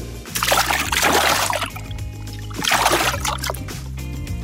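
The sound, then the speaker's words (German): Someone steps into water in a bathtub, making two loud sloshing splashes with a short pause between them, with the water swishing and settling around each movement. No one speaks. “was machst du mit dem Mikrofon in unserer Badwanne?”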